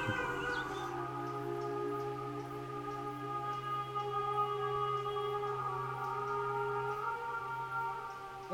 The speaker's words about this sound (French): Donc ça veut dire que si on envoie 100 euh, d'énergie, il nous en revient que 60. Donc si on se met trop près des, du son direct des trompes, l'écho est très fluet presque par rapport à ça et c'est pas intéressant du tout, c'est pas le but.